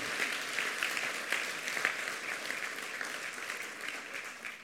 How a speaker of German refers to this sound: Wow, was für ein klasse Video, oder? Ich würde sagen, wir geben den Kids mal einen Applaus, auch wenn sie es wahrscheinlich nicht hören.